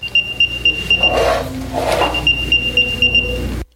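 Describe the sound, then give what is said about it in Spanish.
An AirTag item tracker, sent a sound from a phone, emits rapid, high-pitched electronic beeps in two quick bursts, interrupted by a brief whooshing rush, with a steady low rumble underneath. “El sonido de esa notificación, sin embargo, es uno bajito que puede pasar por desapercibido si la persona está distraída en otros menesteres.”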